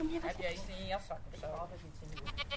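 Goats or sheep, animals from Africa, bleat several times in quick succession in a petting-farm area of a park. Their wavering, quavering cries are loud over a steady outdoor background hum.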